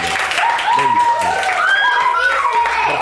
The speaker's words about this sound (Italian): Un altro applauso per questa poesia.